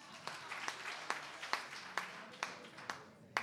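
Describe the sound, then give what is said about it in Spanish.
A short burst of applause, with distinct claps landing in a steady rhythm of roughly two to three per second over a softer, continuous clapping texture. No one speaks. “Dígame si no es algo inteligente para hacer un aplauso para mí.”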